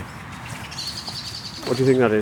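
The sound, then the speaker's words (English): A blackbird's high, thin alarm calls repeat rapidly outdoors in a scrubby dell, then a person starts talking over the end of the calling. “That's an alarm call.”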